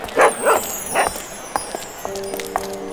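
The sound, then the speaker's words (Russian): A dog named Altai barks three times in quick succession, short loud yaps, then falls quiet as a thin, steady high whine or whimper lingers. “Давайте привяжем Алтаю и пойдем следом Вдруг, ну, мы хоть чем-нибудь поможем”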